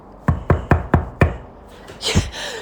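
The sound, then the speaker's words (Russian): A security guard knocks five loud, heavy, evenly spaced knocks on a door in quick succession, followed by a short burst of muffled noise after a brief pause. “И в этот момент раздался громкий стук в дверь.”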